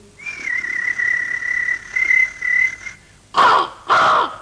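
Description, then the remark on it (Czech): Birds calling: a long, steady whistled note holds for a few seconds, then two loud, harsh caws follow in quick succession. No one speaks. “mezi ptáčky pěkně projít.”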